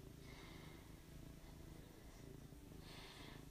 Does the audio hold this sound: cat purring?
yes